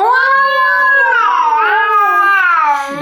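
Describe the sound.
A person's voice imitates a long, wailing cry that sounds cat-like and baby-like, sustained and loud for about three seconds with rising and falling pitch.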